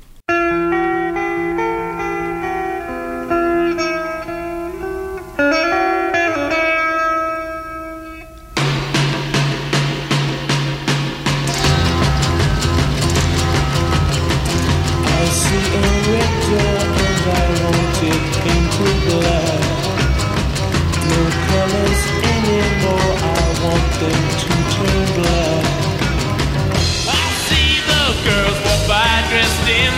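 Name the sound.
rock song being played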